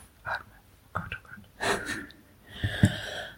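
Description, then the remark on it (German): Deep, shaky, nervous breaths: a few short airy puffs, then a long drawn-in breath followed by a heavy exhale, breathy and slightly wheezy, with no clear speech. “Atmen. Oh Gott, oh Gott. Ein und oh aus.”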